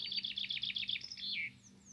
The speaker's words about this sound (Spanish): ahorita escuchando este sonido de los pájaros wow se imaginan en la mañana despertar